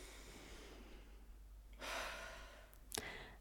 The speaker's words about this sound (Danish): Og så bare prøve at tage en øh, rigtig god, dyb vejrtrækning. Okay. Helt ned i maven.